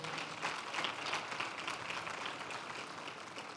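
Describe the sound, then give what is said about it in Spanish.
A crowd applauds a team steadily, many hands clapping in a dense, continuous wash of sound that stays fairly even in loudness for the few seconds shown, with no talking over it. “Otro fuerte aplauso para este equipo, por favor.”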